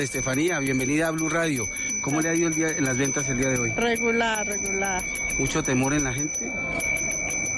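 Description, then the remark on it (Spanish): An ice cream vendor's hand bell rings steadily in the background at the Plaza de Bolívar in Bogotá, Colombia, a thin high metallic tone running throughout while two people talk in the foreground. “Este es el sonido de la campana de los helados aquí en la Plaza de Bolívar.”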